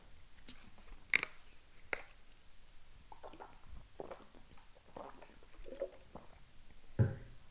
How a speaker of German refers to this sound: So. Wasserflasche ist ähm, geöffnet und wurde ein Schluck getrunken.